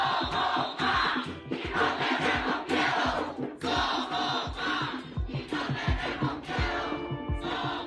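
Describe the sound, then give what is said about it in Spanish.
A large crowd of thousands at the 2019 mass protests shouts and chants together, 'somos más y no tenemos miedo', in loud, surging waves, with rhythmic bursts and sharp accents cutting through the dense, sustained roar of many voices. “Lo vimos durante las protestas masivas del 2019, cuando miles de personas se unieron para gritar a viva voz, somos más y no tenemos miedo.”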